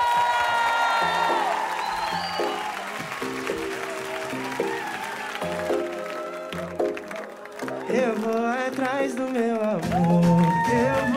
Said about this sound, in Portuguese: Uma salva de palmas